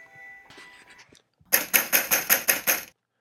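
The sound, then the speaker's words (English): A rapid run of about seven loud, heavy knocks on a door, evenly spaced, following a second of faint, murky background sound; someone knocking again, in a reading of Harry Potter, Chapter 4, The Keeper of the Keys. “They knocked again Dudley jerked awake.”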